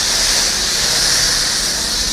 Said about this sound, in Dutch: Kijk, hij zet nu inderdaad de Jeep Wrangler helemaal in het schuim, terwijl de Kerger op de achtergrond druk bezig is. De auto wordt eh, van felgroen langzaam maar zeker helemaal wit.